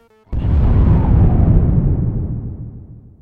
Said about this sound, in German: Aus diesem Punkt ist das Universum in einer Explosion entstanden. Die Explosion nennen wir heute Urknall.